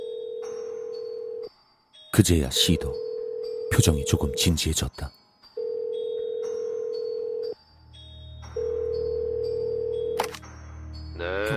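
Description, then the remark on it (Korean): A steady telephone tone hums, broken by a quick burst of keypad dialing beeps as a call is placed to the police, then long, evenly spaced ringing tones follow, clear, with a voice speaking briefly underneath near the end. “난 더 이상 참지 못하고 경찰에 전화를 걸었다.”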